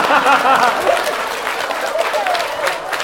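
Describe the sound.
An audience breaks into steady, dense applause lasting about three seconds as women who have been to the bar are asked to clap, a broad crackle of many hands clapping with a few voices faintly calling out over it.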